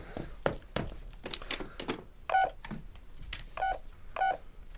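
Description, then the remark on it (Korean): Several plastic button clicks and clunks, followed by three short electronic keypad beeps at a steady pace, as buttons are pressed on an answering machine to find a recorded phone message on its tape. No one speaks. “어, 적어놓진 않았고 나흘 전이니까 응답기 테이프에 아직 남아 있을 겁니다.”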